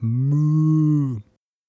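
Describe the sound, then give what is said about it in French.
A single long, loud cow moo, steady and droning for just over a second before cutting off abruptly, with nothing else around it. “Enfin, Mo, le célèbre jeu de cartes où vous collectionnez les vaches en évitant les mouches”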